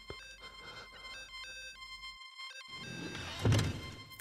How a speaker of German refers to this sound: Herr Burtschig schloss die Tür.